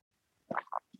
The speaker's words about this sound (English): I'm just gonna have a sip of water